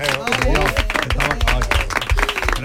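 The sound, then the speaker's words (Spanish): Dense, steady audience applause fills the whole stretch, with cheering and raised voices mixed in over the clapping at a loud, even level. “señores, un aplauso también para”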